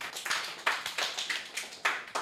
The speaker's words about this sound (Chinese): 我们掌声鼓励。